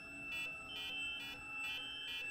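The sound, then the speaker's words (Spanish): A museum security alarm blares steadily, its electronic tone pulsing up and down in regular cycles about twice a second, loud with no voices. It is the third alarm to go off, at 6:46. “A las 6.46, menos de 10 minutos después, se activa una tercera alarma.”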